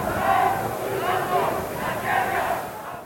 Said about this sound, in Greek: Εδώ, στη Μητρόπολη Αθηνών, επί υπηρεσιακής κυβέρνησης Γρίβα, πλήθος οπαδών του Πασόκ φωνάζει κάτω τα χέρια από τον Ανδρέα.